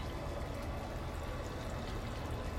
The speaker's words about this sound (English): I hope this water's not too loud.